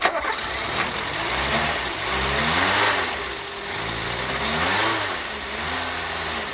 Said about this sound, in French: Un son qui a marqué ma vie, il y a le, son de la 4L, le bruit du moteur de la 4L, moi, qui a marqué ma vie, peut-être qui a influencé enfin ce projet plutôt a influencé ma vie parce que ça c'était ma plus grande aventure.